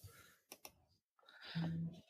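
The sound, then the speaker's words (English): Two quick, sharp computer mouse clicks a fraction of a second apart as a link is clicked and opened in a new tab, followed by a brief silence and then muffled talking with background noise. “I am clicking on the link, and I am opening in a new tab.”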